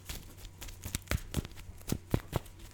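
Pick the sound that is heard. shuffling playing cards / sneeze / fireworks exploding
shuffling playing cards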